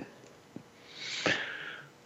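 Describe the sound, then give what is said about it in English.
A dog named Chloe breathes and snuffles right up against the microphone, a close, hissy exhale swelling over a second with a short snort in the middle. No one talks. “she's right up breathing on the mic.”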